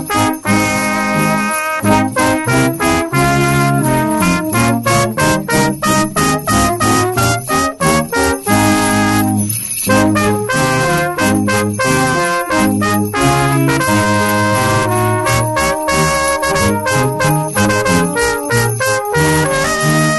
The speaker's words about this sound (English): A brass band live on the radio. It literally doesn't get any better than this. Oh, oh! I'm being handed an instrument. yes, I've got the sleigh bells. Let, let's have it. Away you go.